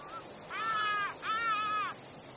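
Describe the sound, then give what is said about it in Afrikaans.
Birds call out overhead twice in long, raspy, drawn-out cries, each lasting most of a second, with a faint short call before them and a steady high insect-like drone underneath. “Ek wens ek was een van daai voëls. Dalk is hulle op pad na Egipte.”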